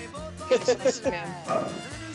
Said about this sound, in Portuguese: Se, se tiverem ouvido aí o barulho dos cachorros, desculpa aí.